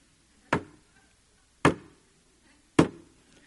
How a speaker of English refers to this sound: That was the sound of my head hitting the coffee table. I was both doing that and hollering at the television at the same time